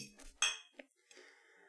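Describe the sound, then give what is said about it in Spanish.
Glasses clink together in a toast: one bright, ringing clink, then a couple of softer taps and a fading shimmer. It's quiet, with no one talking. “Salud. Bueno, salud, salud.”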